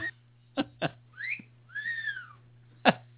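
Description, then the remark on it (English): Two thin, breathy whistle tones slide up and then arc down, made by a person breathing with an inhaled whistle, set between a few short, sharp bursts of noise. “I inhaled the whistle. I apologize. I can't stop.”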